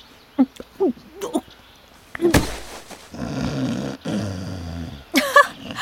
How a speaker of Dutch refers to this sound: Amai, Sneeuwwitje kan nogal snurken, zeg.